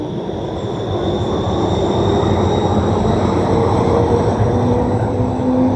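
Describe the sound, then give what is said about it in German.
A tram rolls along the street, a steady mechanical rumble with a thin high whine over it, holding loud for several seconds with no voices. “der Straßenbahn mit und ist enttäuscht, dass er die nicht kriegt, aber er ist sowieso auf der anderen Straßenseite.”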